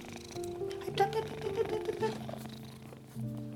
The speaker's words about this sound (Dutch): Ja, het is gewoon een schat van een kat, joh. Het is echt, het is zo'n lief beest. Hé, poes